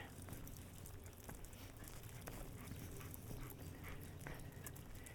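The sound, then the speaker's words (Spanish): A soaking-wet, excited dog whimpers and pants just after rain has stopped, a steady run of small whines and quick breaths over a soft, constant wet hiss in the background. “Pues, Está totalmente mojado.”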